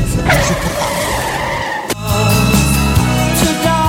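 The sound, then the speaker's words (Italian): Loud, sustained tire screeching from a skidding car lasts nearly two seconds, ending in a sharp bang as the car crashes, followed by a steady engine rumble. No one speaks. “ma poi andare a sbattere la macchina.”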